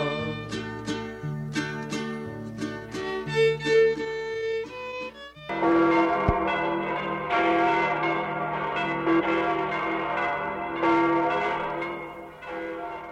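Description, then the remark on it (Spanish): Church bells ring loudly, a quick run of separate strikes at first, then a dense, overlapping peal that keeps clanging without pause. No voices are heard. “¿Quién mandó tocar esas campanas?”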